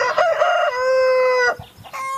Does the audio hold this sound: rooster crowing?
yes